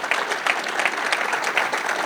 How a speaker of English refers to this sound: And uh, I think you can hold your applause until we're all through, but if you'd like to um, welcome everyone, I mean, express your appreciation, feel free.